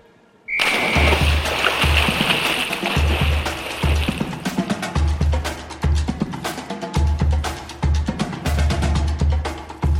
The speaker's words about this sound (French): Jambouin, une piscine très populaire de Nice, où les mamies et les enfants en brassard viennent également faire trempette.